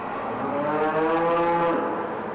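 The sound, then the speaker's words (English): A dairy cow lets out a long, drawn-out moo lasting over a second, clear, over the steady background murmur of cattle huddled in long barn pens at Blue Spruce Dairy Farm in Bridport, Vermont, home to 2,000 cows, on a cold morning at 5 o'clock. “They're huddled together in long pens, mooing, munching hay”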